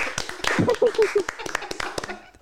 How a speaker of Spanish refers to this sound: Otro aplauso. Otro aplauso.